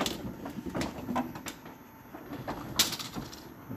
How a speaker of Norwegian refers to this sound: Står han i 45 grader og tilbake igjen. Han 45 grader andre vei og ny retur. Og Der er veltepetter helt på taket, og jeg hører det skrangler i tomflasker og gummimatter inn i bilen.